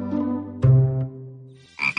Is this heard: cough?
no